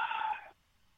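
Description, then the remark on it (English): A single big audible gasp from a man, breathy, lasting about half a second before cutting off into near silence. No talking accompanies it. “And the big audible gasp there is he knows that we'll hold him to this.”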